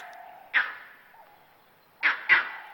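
A monkey calls out in three sharp, loud cries, one alone and then two in quick succession, over a steady, thin chattering tone in the background.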